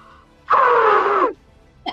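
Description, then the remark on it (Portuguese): A person imitates a young elephant calf's trumpet with one loud, brassy blast lasting under a second. Its pitch slides slightly downward, and it is otherwise quiet. “Eu, é, gente, eu sei fazer o barulho do elefante. Eu vou tentar aqui.”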